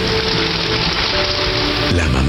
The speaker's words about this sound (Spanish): Todos nos quedamos en absoluto silencio. No se escuchaba nada más que la lluvia